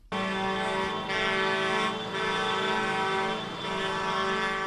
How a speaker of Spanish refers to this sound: Sonido de bocinas de los tractores que se han escuchado en muchos puntos de la geografía foral, pero con especial impacto en Pamplona por aquello de ver esas imágenes pues tampoco habituales de tractores colapsando el centro de la capital.